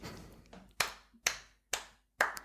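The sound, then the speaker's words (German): Four crisp appreciative hand claps, not a slow clap, at a steady, unhurried pace, each a sharp smack with a short decay, after a brief stretch of quieter fading sound; no one speaks. “das ist kein Slow Clap, das ist ein, ein, wirklich ein anerkennendes Klatschen.”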